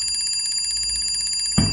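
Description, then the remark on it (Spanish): A rapid, high-pitched metallic bell rattles steadily like an old alarm clock ringing, an alarm set for 3:50 in the morning, then a sudden low thump cuts in near the end. “Esa madrugada recuerdo perfectamente levantarme con el sonido de la alarma.”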